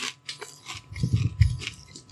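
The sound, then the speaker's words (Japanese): Crisp crunching of an onion gratin soup flavored snack being chewed, a few quick bites with irregular rhythm and no talking, fairly quiet overall, recorded in Shimokitazawa. “ちょっとすいませんね、咀嚼音が入ってしまうんで申し訳ないんですけど。”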